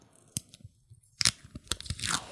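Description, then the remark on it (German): Sticky tape being handled on a desk, with a few sharp plastic clicks at irregular intervals and faint rustling and handling noise between them. No one speaks. “Ja, du machst den Stift zu.”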